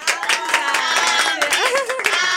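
Steady applause from an audience, dense overlapping claps running for a couple of seconds at an even, fairly loud level, mixed with high cheering voices and whoops over the top.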